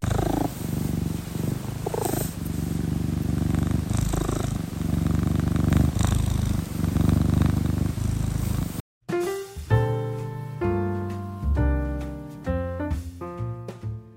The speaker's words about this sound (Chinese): 各位各位，开始之前，我想要先给大家听一下我家猫咪的呼噜声。